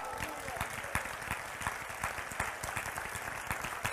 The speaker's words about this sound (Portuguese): Alguém está aqui, concorda? Se concorda, aplauda ao Senhor.